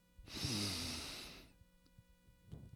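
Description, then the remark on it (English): A single deep, airy inhale drawn through the nose as part of a breathing exercise, fairly loud, lasting just over a second before fading to near silence with a few faint soft clicks. “So the breath work I want you to think about, as again we displayed in the accordion model, breathing in”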